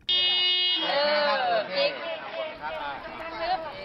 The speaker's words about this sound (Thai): เพราะว่าที่โรงเรียนในจังหวัดเพชรบูรณ์ค่ะเขาฝึกเด็กอนุบาลเอาตัวรอด ติดอยู่ในรถตู้โดยการบีบแตรขอความช่วยเหลือจากผู้ใหญ่